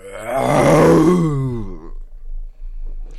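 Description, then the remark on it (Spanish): A person's voice imitates a lion's roar: one loud, rough, drawn-out growl that swells and then falls in pitch over about a second and a half before fading to near silence. “El león miró a los niños, miró a la cuentacuentos, miró los libros cerrados y lanzó un tremendo rugido.”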